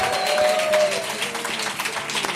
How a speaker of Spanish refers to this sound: Nuestros amigos de Berti, un aplauso para ellos.